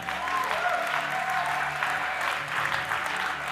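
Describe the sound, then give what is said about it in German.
An audience claps together for God in sustained, dense applause, a steady wash of many hands clapping at a fairly loud, even level with no voices standing out. “Können wir Gott nochmal einen Applaus geben?”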